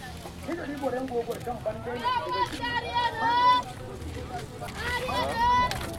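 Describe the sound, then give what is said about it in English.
A street vendor in Niamey shouts "harieno" (fresh water) to sell ice water in small plastic bags: two long, drawn-out calls with rising and falling pitch, rising above a steady murmur of voices and background bustle. “You can hear a small seller of ice water, shouts harieno, which means fresh water, and also pure water.”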